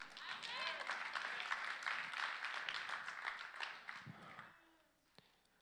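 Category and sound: crowd, audience applauding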